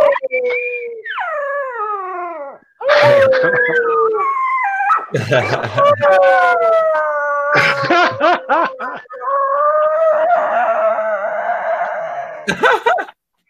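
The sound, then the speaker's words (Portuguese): A female dog howls in long, wavering, sliding tones, fairly loud, broken by short yips and whimpering breaths, continuing through most of the stretch before a brief pause near the end. “Eu descobri isto por acaso, tipo, já, assim, eu sei que não é a única cadela que faz isso. Eu sei que há várias cães fazem isso.”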